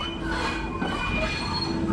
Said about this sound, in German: Ich wirbelte durch die Lüfte, strich über die schwarze Nase der Führerlok, über die Esse, aus der tiefschwarzer Rauch stieg.